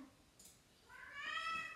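A cat lets out one drawn-out, rising meow in the second half, fairly soft and alone against quiet background hiss, with no talking.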